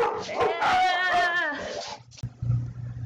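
A dog named Bull whimpers and yelps in a drawn-out, high-pitched whine with a few short yips, lasting about a second and a half before fading into a low, steady rumble.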